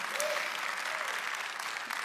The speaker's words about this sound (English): Come on, everybody, give Janesville a round of applause.